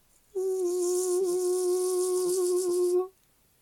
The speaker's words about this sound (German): Dieses Summen war von einer Alarmanlage. Die wurde extra im Haus eingebaut. Sie sollte nämlich Gefahren melden. Wenn zum Beispiel nämlich die Geheimpolizei vor der Tür stand.